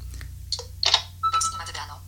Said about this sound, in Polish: O właśnie. Mamy tutaj, e, słyszymy dźwięki, jakie są dostępne w Samsungu Galaxy Nexus, no ale nie będziemy dźwięku słuchać.